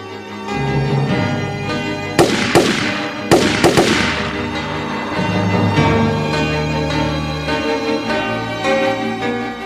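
Several loud gunshots ring out in two quick pairs, each crack trailing off in an echoing decay, over a steady low musical drone that continues afterward; in a KBS radio reading of Jeon Sang-guk's story 'Abe's Family', the shots come from the direction of the narrator's family house.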